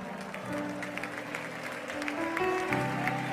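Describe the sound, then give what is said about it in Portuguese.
An audience applauds steadily with a dense, crackling patter of many hands, moderately loud throughout, while low sustained instrumental tones hold and shift underneath. “Um, vou pedir para vocês, com todo carinho, só aplaudir no final e por hora levantar a mão e começar a orar.”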